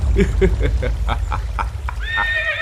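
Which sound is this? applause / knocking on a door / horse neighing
horse neighing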